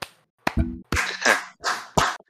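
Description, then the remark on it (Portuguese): Several loud hand claps land at an irregular pace, some sharp and brief and others smeared into longer noisy bursts, with no talking. “Eu só quero deixar aqui uma salva de palmas.”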